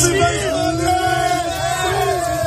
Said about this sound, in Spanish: Se han sucedido las celebraciones en distintos puntos de España, en Barcelona, Valencia, Bilbao o Madrid, como esta que escuchas en la Puerta del Sol.